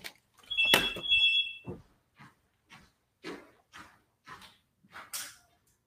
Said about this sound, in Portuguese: Peraí que tá tocando meu telefone no meio da live.